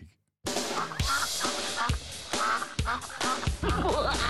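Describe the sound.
Someone imitates a duck with loud, raspy quacks in a rapid, nearly continuous run after a brief silence, with rhythmic pulses every second or so and no ordinary speech.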